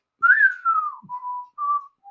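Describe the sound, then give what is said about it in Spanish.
A lone whistled tune in a Western film style, opening with a high sliding note that glides down, then a few shorter held notes. Clear, with no talking. “Este, mm, seguro han, escuchado ese chiflido de”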